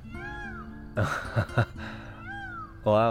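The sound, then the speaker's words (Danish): A bird of prey soaring in the sky calls overhead with two drawn-out, mewing cries, one at the start and one near the end, above a large wild meadow in a botanical garden in Geneva under a cloudless, sunny sky. A person laughs and speaks briefly in between. “og øh, rovfuglen, der svæver på himlen over os, som man kan høre i baggrunden.”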